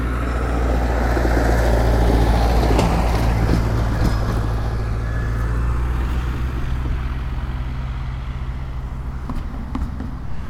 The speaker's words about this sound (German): Mann, ich habe selten so viele Autos gesehen. Was ist denn hier los?